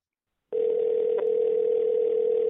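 A steady telephone dial tone, as a prank phone call is placed, starts abruptly after a half-second of silence and holds at an even, loud level for about two seconds, with no voices.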